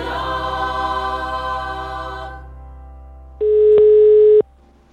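A telephone ringback tone sounds once while a call is being placed: a steady, loud electronic tone lasting about a second, following a buzzy hum that cuts off. No one speaks.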